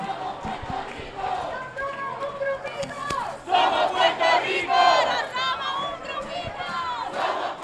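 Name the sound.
protest crowd shouting slogans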